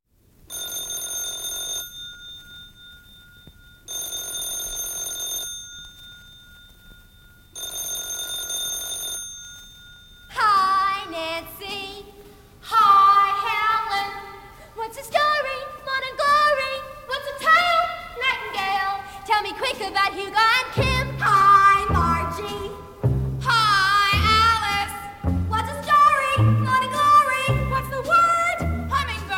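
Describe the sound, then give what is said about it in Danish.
A telephone-like bell rings in three bursts, then a bright musical-theatre ensemble of teenage voices, including a boy whose voice is breaking, starts singing quickly in overlapping lines as teenagers trying to talk to each other, joined partway through by bass and a steady rhythm section. “Telephone Hour hedder den, og den er fra Bye Bye Birdie.”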